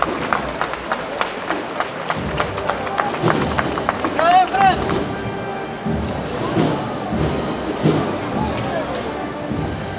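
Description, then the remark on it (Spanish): Steady, rhythmic shuffling of many feet marching in unison as bearers carry the paso del misterio of Jesús de la Piedad along the official route of a Palm Sunday procession, fairly loud, over a murmuring crowd with voices calling out now and then. “Vamos a ver si se nos cuelan esos sonidos porque ya está andando por esta carrera oficial el paso del misterio de Jesús de la Piedad.”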